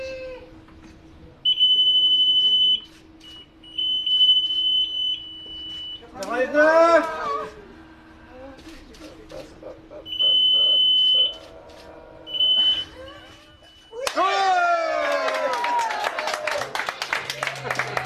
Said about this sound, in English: cheering on the bridge drowns out the high pitched sound of the onboard GPS, which strikes 90 degrees north exactly.